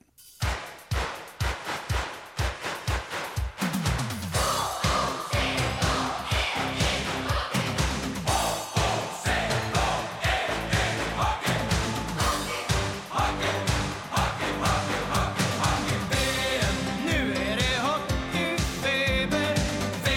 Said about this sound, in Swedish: exempel då på när sportstjärnor vill göra något kulturellt är de här landslagslåtarna